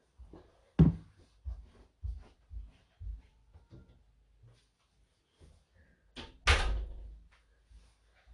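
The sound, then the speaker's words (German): A door is handled and shut: a sharp knock, then a string of softer clicks and bumps, and finally a heavy, loud thud as it closes. No one speaks. “Ich mache kurz die Tür zu, dann hört ihr nicht Elina jaulen.”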